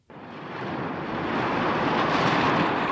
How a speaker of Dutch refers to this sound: Vanaf de heuvels had de wind zich op het meer geworpen en had grip gekregen op het bootje. nu waren ze in moeilijkheden. Het was donker om hen heen en huizenhoge golven dreigden het schip te laten zinken.